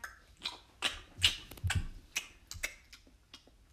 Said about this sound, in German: Schmatzt so voll da rein.